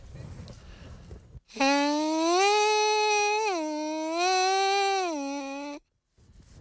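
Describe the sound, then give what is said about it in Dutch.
A buzzing horn mouthpiece, played on its own, sounds a lower sustained note that slides up into a higher one, held steadily for about four seconds, loud, with no talking over it. “Oh, ik kan het ook op een mondstuk laten zien.”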